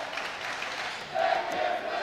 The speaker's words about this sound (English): as the Eagleville student section cheers, Take His Whistle. They must not have been happy with that.